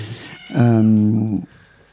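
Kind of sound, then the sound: animal, cat meowing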